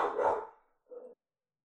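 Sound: dog barking excitedly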